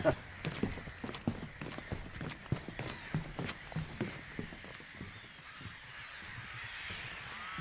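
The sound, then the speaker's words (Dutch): Steady footsteps crunch along at a brisk walking pace on an island, a regular series of firm thuds over a soft hiss of outdoor background, the steps fading slightly toward the end. “We gaan even verder wandelen op de rest van het naast het eiland.”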